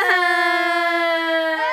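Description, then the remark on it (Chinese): A child's voice imitates a duck crying in a story being told, with one long, steady, high wail lasting almost two seconds, loud and unbroken, with no other sounds. “被大家这样讲啊，在旁边偷听的鸭子好难过，他忍不住啊就哭了起来。小妹哭起来，哇哈哈，”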